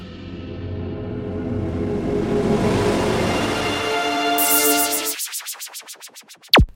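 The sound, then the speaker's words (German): A steam locomotive sound: a swelling, rushing hiss of steam in the boiler builds for several seconds, then breaks into a quick run of rhythmic chuffing puffs ending in one sharp final burst. “Ihr hört Dampf im Kessel.”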